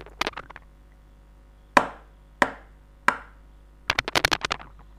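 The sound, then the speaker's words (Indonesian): Knocking on a door from outside: a few scattered taps, then three loud, evenly spaced knocks, followed by a quick burst of several faster raps. No voices are heard. “Pintu diketuk dari luar sekali lagi.”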